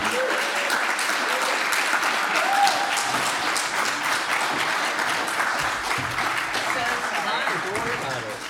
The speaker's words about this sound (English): Uh, please give a round of applause to both of our guests, Julie Plec and Kevin Williamson.